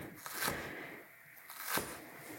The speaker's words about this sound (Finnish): Mä leikkasin hölmösti tämän sipulin, mä tunnustan. Mä otin sen kannan vekeen ennen kuin mä rupesin silppua tätä, joka on tosi tyhmää, koska näähän liukuu paikoiltaan mokomat.